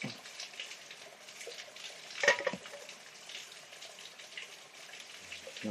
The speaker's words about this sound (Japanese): このせせらぎが聞こえる中でコーヒー飲むっていいっすね